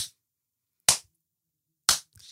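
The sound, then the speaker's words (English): Three sharp slaps of hands against skin while applying moisturizer, spaced about a second apart, each a crisp smack that dies away quickly into silence, with no talking. “why am I slapping myself to reach regions?”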